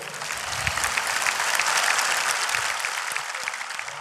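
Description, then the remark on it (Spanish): A crowd applauds steadily for about four seconds, a dense, even wash of many hands clapping at a consistent loudness with no voices standing out. “Un aplauso, por favor.”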